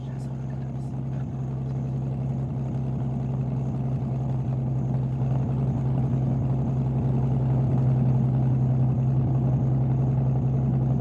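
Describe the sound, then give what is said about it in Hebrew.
A steady, deep engine rumble of two more cars arriving, growing slightly louder over several seconds, a continuous low hum like vehicles rolling in and idling. “עוד שתי מכוניות מגיעות.”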